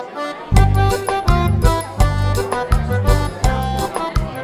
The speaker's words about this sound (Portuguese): Instrumentos tocando um forró.